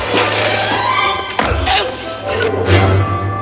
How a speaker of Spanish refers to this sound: Argyle sale y noquea a Teo de un puñetazo.